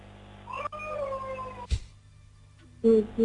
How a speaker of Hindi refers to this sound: अभी तो आपके पीछे मुझे बच्चे की आवाज आ रही है